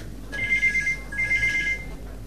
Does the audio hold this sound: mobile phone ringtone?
yes